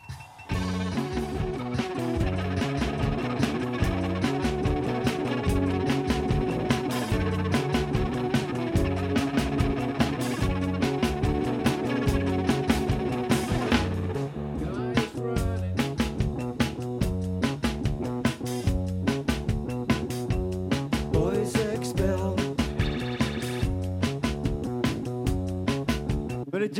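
A band plays loudly and steadily, with dense guitars, bass and driving drums filling the sound, the room ambience suggesting a live performance; no talking is heard.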